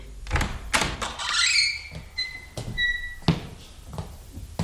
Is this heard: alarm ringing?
no